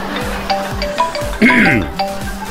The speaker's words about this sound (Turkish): çok özür dilerim stüdyo telefonu çalıyor.